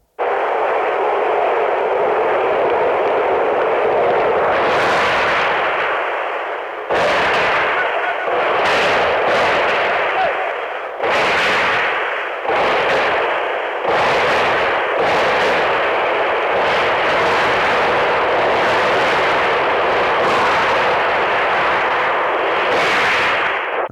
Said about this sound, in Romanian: Tancuri și mitraliere pe străzi trag în mulțime. Timișoara, 17 decembrie 1989.